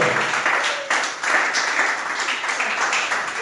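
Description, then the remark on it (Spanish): A church audience applauds steadily, giving the applause to the Lord: dense overlapping claps forming a loud, sustained wash of noise with a brief dip in the middle before it surges again; no one speaks over it. “Déselo al Señor el aplauso, por favor.”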